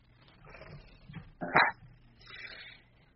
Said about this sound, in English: My cat enjoyed it. I don't know if you could hear him meowing, but he showed up